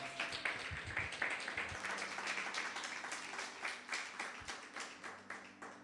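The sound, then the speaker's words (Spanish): An audience breaks into sustained applause for the Lord, many hands clapping in a dense, steady patter that holds at an even loudness for several seconds with no voices over it. “Yo quiero que te des un aplauso. Dale un aplauso al Señor.”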